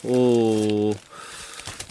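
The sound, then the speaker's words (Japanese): A man holds a drawn-out hesitant vowel, then newspaper pages rustle and crinkle in soft, irregular bursts for about a second as the day's newspapers, just arrived in the studio, are flipped through to their front pages. “スタジオ長官各紙が入ってまいりました、えー、一面をこうざーっと、まあ、見ますと”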